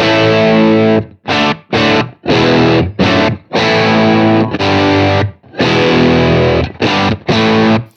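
Heavily distorted electric guitar played through a Plexi amp plugin on the Super Bass setting with the volume at max: a series of loud, saturated chords in short bursts with brief gaps between them, thick and buzzing with a rich, crunchy overdrive tone. No one speaks.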